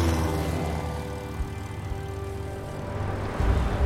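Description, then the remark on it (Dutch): A small propeller plane carrying a patient roars steadily, a continuous droning hum with a slight swell in power toward the end, as it speeds along a bumpy grass strip and begins to climb. “Ik maak vaart op de hobbelige grasbaan en begin voorzichtig aan mijn klim.”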